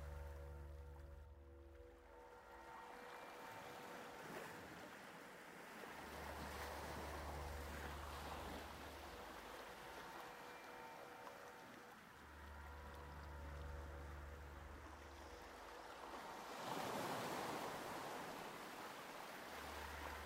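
Ocean waves wash in and recede in slow, broad surges during a guided meditation, while soft, sustained relaxing music hums underneath with gentle low tones swelling and fading. There is no talking.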